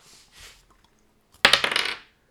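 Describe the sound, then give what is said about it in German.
Dice being rolled to draw the second package: two soft rattling shakes, then a sharp burst of hard clattering and bouncing against a surface for about half a second before settling, fairly loud, with no one speaking. “Würfel Achso, würfeln den zweiten aus.”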